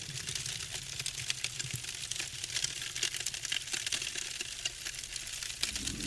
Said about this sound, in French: Nous bénissons et brûlons tout ce que tu es censé retrouver dans ta nouvelle demeure. Maison et voiture en carton, argent en papier.